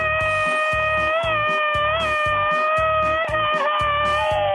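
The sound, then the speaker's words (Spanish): A voice holds one long, loud, unbroken wailing scream imitating the ghostly cry of La Llorona, steady and sustained throughout, over a rhythmic thumping beat underneath. “A ver, criatura del Señor, quiero que le mandes un grito ametrallador a la gente que nos escucha en Ciudad Juárez, Chihuahua.”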